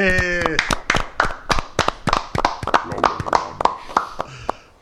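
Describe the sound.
A small group of four people claps for their sound technician for several seconds, sharp irregular hand claps overlapping at a quick, uneven pace, with a brief harmonic tone or voice at the very start.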